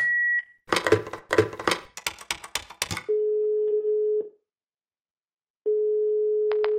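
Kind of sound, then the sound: signal or alarm, answering machine beep tone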